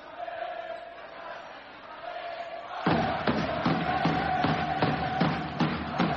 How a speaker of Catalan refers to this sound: Tot el públic dret, tot el públic aplaudint, la gent gaudint al màxim de moment d'aquesta victòria del Baxi Manresa, 55 a 23, està jugant l'Obradoiro.